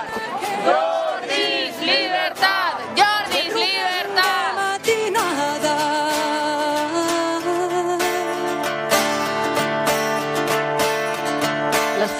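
Over a hundred people at Puerta del Sol in Madrid, in the rain, chant "No esteu sols" and sing together in unison, loud and sustained, with voices rising and falling in rhythmic shouted phrases before settling into a steadier, drawn-out sung refrain.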